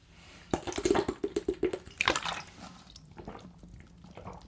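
A short run of wet gulping and sloshing sounds as a person drinks water from a bottle, several quick swallows in a row followed by a small liquid splash, then quiet. No one speaks.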